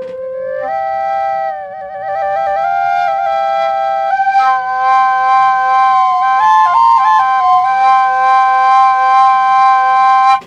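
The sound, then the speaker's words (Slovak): A pipe plays two notes at once: a steady sustained tone beneath a melody that steps up and down in pitch, the second voice a cross tone played against the first, roughly its dominant. Bright and fairly loud, continuing unbroken for about ten seconds with no voices. “Hej, teraz tam bol dvojhlas.”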